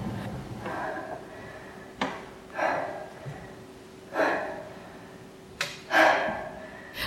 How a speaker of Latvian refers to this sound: Šai cīnītājas ainā dejotājas elpa ir ritmiska, kā sportā pienākās. Piepūlētā tiek kāpināta sevis pārvarēšanas niknējā šņākuļošanā, kas jau krietni vēlāk izlauzīsies cilvēciskā kliedzienā.